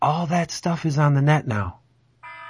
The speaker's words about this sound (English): What is that? That's my phone.